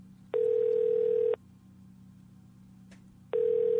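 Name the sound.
telephone ringback tone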